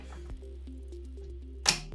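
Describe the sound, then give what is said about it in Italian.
Water trickles and gurgles steadily for a couple of seconds as a person pours himself some water, then a brief splashy burst near the end, fairly quiet, with no one talking. “mi verso un po' d'acqua se non ti dispiace.”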